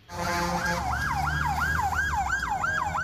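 A loud ambulance siren wails in fast, steady up-and-down cycles over a low rumble of traffic and engine noise, with no talking.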